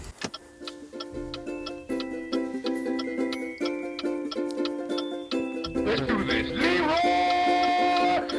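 A tense music jingle built on steady clock ticks about twice per second, with pulsing synth tones underneath; near the end the music swells louder and busier. No one speaks.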